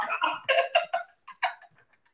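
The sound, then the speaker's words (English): A quick, rhythmic run of ticking beats, fairly loud, that seems to come from a voice imitating a clock's tick-tock before it fades into softer, sparser ticks. “I did not, I say, I did not say old man clock. Keep starting that shit up again.”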